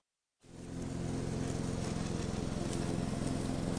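A lawn mower engine starts up after a brief silence and keeps running with a steady, buzzing drone, fairly loud, with no voices.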